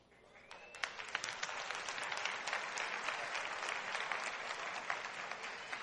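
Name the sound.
weak audience applause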